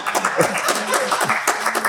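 A live audience breaks into applause, a dense, steady patter of many hands clapping with a few voices calling out underneath, holding at a fairly loud level throughout.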